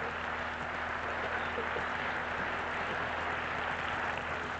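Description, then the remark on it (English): An audience applauds, clapping for themselves and thanking God, in a steady, dense wash of clapping that holds at an even level for several seconds without a break, with a low hum beneath it. “So let's clap for our people. Let's clap for ourselves and thank God for revelation, understanding.”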